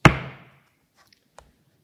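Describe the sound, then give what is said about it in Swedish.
A hammer is thrown onto a desk, landing with a single heavy thud that rings briefly and fades, followed by a couple of faint small knocks and a short tap. “Tar upp ett föremål och slänger på bordet med en duns.”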